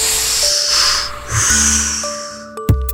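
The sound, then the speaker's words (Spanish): A long, forceful inhale through the nose from a just-uncorked bottle, which is then immediately closed: a breathy hiss that swells twice over a few seconds, with faint steady tones underneath and a short knock near the end. “Al día siguiente, nada más despertar, destapó la botella y aspiró con mucha fuerza tapándole inmediatamente.”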